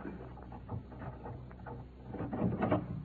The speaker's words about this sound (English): I believe you're about to unlock the hall to the Elgin Marbles.